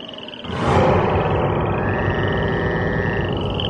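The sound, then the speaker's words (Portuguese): A dense chorus of many frogs in Egypt croaking and trilling at once, swelling in loudness after a quieter first half-second, then continuing steadily with no voices. “E as rãs saíram das águas e cobriram todo o país.”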